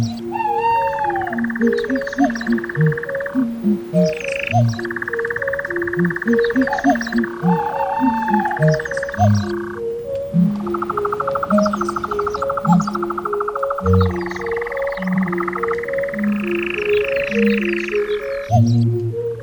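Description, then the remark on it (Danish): Layered samples of songs of endangered bird species woven into a rhythmic electronic album track, with sustained tonal chords, repeating low croaking pulses, and bright chirping trills rising above the steady beat throughout. “det består blandt andet af en masse samples af fuglesang, der tilhører truede arter”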